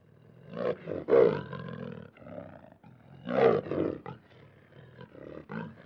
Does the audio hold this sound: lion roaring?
yes